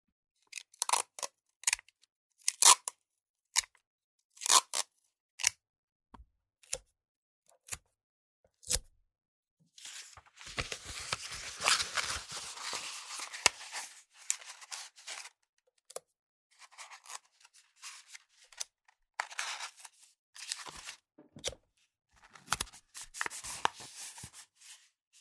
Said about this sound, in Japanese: 同じ大きさのパイプをもう一本作る。テープを3枚取ってから